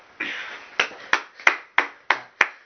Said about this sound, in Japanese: じゃあ第2号機案は承認ということで賛成の方拍手拍手お願いします